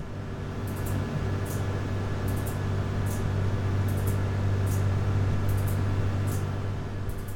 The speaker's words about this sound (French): Ça, c'est le bruit des obturateurs devant les faisceaux laser qui lancent les atomes. Donc ça n'a rien à voir avec la seconde.